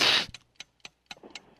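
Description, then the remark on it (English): A person imitates sniffing with a breathy rush of air, then a quick run of short, sharp sniffs at a steady rhythm, with no talking. “Uh, this is something you do with your nose.”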